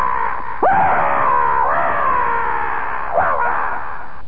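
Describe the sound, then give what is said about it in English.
A person imitates the monster Godunka's primordial mating cry, a loud, drawn-out scream with sharp rising swoops that break into a long wavering wail lasting several seconds. “And then he lets go his primordial mating cry as he sees what he considers another enemy coming right at him”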